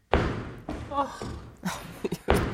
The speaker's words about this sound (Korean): 막 쿵쾅거리니까 미칠 노릇이었죠. 어, 이 소리 무섭다.